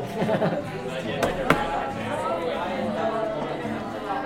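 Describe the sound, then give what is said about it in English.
Steady murmur of many students talking at once in a classroom during a sharing activity, a lively overlapping hubbub with no single clear speaker, punctuated by a couple of sharp knocks partway through. “Holy cow, this class is so chatty.”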